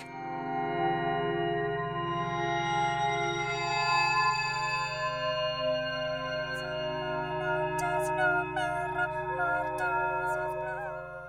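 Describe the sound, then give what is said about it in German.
Mortuus Plango Vivus Voco, a 1980 electronic piece by English composer Jonathan Harvey, built from processed bell tones and conceived for eight loudspeakers: layered, shimmering partials ring out over a steady low drone, with pitch-bending glides and chiming accents surfacing near the end, heavily reverberant and continuous. “1980 stellte sich der englische Komponist vor, wie es wäre, wenn man frei wie ein Vogel durch den Glockenklang fliegen könnte und schuf damit einen Klassiker der elektronischen Musik.”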